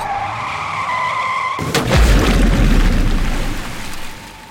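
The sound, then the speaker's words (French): Tires squeal in a sustained, high whine as a car zigzags, then a loud crash with a deep thud as it plunges into a cart, followed by a few seconds of clattering, rumbling debris that gradually fades. “Le véhicule zigzague avant de plonger dans la charrette.”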